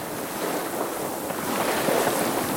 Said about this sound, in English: And this wind has blown up uh, in, in a matter of hours. It's, it's gone from almost flat calm as you walk down the marina to now it's choppy with quite top waves.